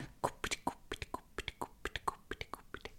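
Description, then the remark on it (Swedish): A voice imitates a baby's heartbeat as heard at a midwife checkup, with quick, breathy whispered pulses, a rapid galloping rhythm repeated for a few seconds. “Hos barnmorskan så fick vi också lyssna på bebisens hjärta.”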